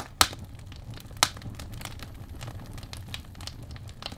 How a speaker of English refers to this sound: Let's sit. But let's just warm up by the campfire here.